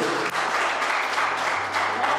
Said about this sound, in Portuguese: Vamos aplaudir a Jesus por causa disso.